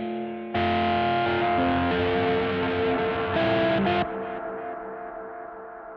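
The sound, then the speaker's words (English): Isolated guitar delay signal, heard on its own without the amp signal: sustained, heavily processed notes with a thick, distorted wash and repeating echoes, swelling loud for several seconds before trailing off into a decaying tail. No voices. “Um, you heard the amp signal, but when we listen to the delay, it's only the delay.”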